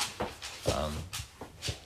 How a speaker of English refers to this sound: Um, and now we're introducing a bone to the dog's uh, noise making.